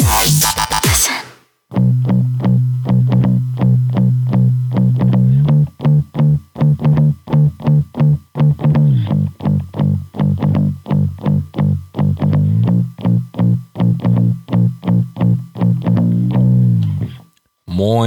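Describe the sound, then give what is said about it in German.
A loud, gritty bass guitar line, a legendary bass riff from a song, plays alone: low, sustained notes driven by a steady stream of rhythmic plucks, with the pitch stepping down partway through before the riff cuts off abruptly. “ein ja, legendärer Basslauf, Teil 5.”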